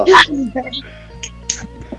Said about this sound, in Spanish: Está mi perra quejándose.